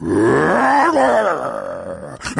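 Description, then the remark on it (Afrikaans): A human voice imitates a lion roaring as loudly as it can: one loud, sustained, gravelly growl that rises then slowly falls over about two seconds, ending with a short breathy huff. “Daar aangekom, brul hy so hard as wat hy kan.”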